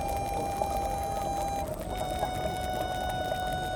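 Bubbles from a thermal hot spring make a steady, dense bubbling wash with a constant humming tone running through it and occasional soft pops, with no voices.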